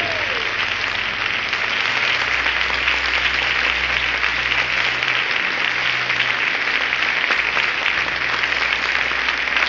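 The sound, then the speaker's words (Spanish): An audience applauds the King (God) loudly and steadily, a dense, continuous wash of many hands clapping that holds at an even level for the full stretch, with no talking over it. “¡Aplaude al Rey!”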